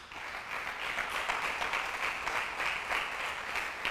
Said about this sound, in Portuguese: Dá um aplauso aí.